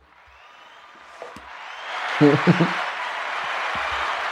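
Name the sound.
applause sound effect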